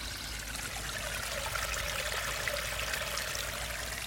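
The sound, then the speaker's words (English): Water that has run over the ground trickles and drips steadily back into a hollow pipe, a continuous gentle flow with a resonant, slightly echoing tone, heard alone without any talking. “You know, the sound, there's at least two different sounds um, coming from the water.”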